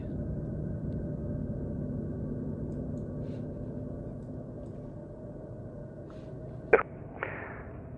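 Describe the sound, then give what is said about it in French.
Eerie, steady high whistling tones heard over the radio by astronauts Eugene Cernan and John Young at the Moon drift over a low radio hiss and rumble. They are broken by a couple of sharp, brief bursts near the end; no voices. “Cette musique semble venir du fond de l'espace. T'entends ça Des sifflements Un peu aigus Ce...”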